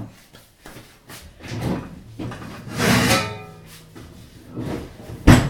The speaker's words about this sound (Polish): Biorę zwykłą prostokątną blachę z piekarnika.